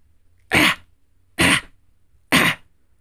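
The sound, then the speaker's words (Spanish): A person imitates a dog's kennel cough with three harsh, hacking coughs spaced evenly about a second apart, loud against a quiet background. “La tos de perrera ocurre cuando un virus invade las vías respiratorias superiores de tu perrijo provocándole dolor y cosquilleo.”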